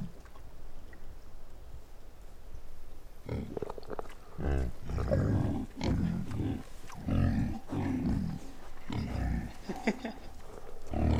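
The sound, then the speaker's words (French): After a few seconds of near silence, a pig grunts and squeals loudly, a run of rough, irregular snorts and squeals that keeps going to the end. “C'est un cochon.”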